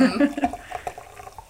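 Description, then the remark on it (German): Sekt (German sparkling wine) is poured into glasses, a short bubbly gurgle with fizzing and rising pitch as the glass fills, over about a second and a half alongside voices. “Jetzt schenken wir einmal den Sekt ein und dann ähm, darf, ich, darf, ich, euch die Sektgläser gleich reichen.”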